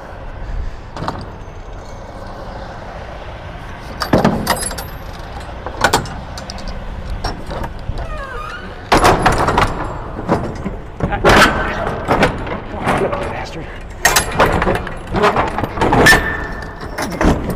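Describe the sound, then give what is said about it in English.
Sharp metallic clicks and clunks of a latch snapping into place as the tandems are locked in, several in an irregular series, over a steady low mechanical hum. “top one didn't want to clip. There. That clipped.”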